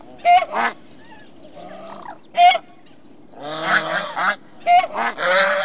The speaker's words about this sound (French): Mais son chant varie aussi selon la morphologie de l'oiseau. La trachée très allongée des grues et des cygnes sert de caisse de résonance et explique leur chant singulier.